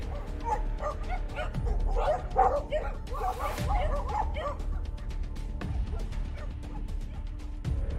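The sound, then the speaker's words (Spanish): Several fierce dogs bark aggressively and repeatedly, overlapping in a loud, frantic chorus with occasional yips and whimpers, continuous throughout. “De aquí surge el miedo del silbón del ladrido de los perros, los látigos y el pimiento.”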